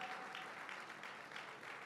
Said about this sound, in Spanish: Bendito sea el Señor. Dele, dele aplauso y alabanza al Señor. Aleluya. Glorifique al Señor.